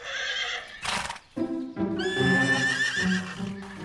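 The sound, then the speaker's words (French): A wild horse neighs loudly, with shrill, wavering whinnies over a sharp noisy burst and some clopping of hooves. No one speaks. “Tu vois, moi, je connais assez bien les chevaux pour savoir quand il y a quelque chose qui ne va pas.”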